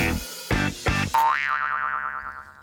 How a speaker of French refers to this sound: Écoutez notre petit thème avant. Préparez-vous, mesdames et messieurs. Voici la chanson instantanée.